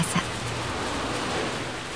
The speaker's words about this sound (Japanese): 冬は簡単にその座を明け渡しはしない路面を激しく叩く雨を降らせ並木道の木々たちの神戸を折るように風を吹かせる春の嵐は冬の仕業